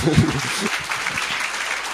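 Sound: audience applause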